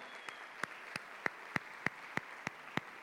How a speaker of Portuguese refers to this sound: Vamos aplaudir o Senhor!